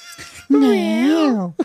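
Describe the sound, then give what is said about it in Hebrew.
A female cat, kept by its owner for 12 years, gives a single long, drawn-out meow that rises and falls in pitch, loud, with a few soft rustling noises just before it and a short chirp right after. “לא, באמת היא האהבה שלי, החתולה הזאת.”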